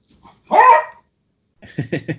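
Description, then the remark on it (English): Dogs barking during playtime: one loud, drawn-out bark, a brief pause, then a quick run of four or five shorter, choppier barks, with no one speaking. “Um, sorry, the dogs are kind of going up.”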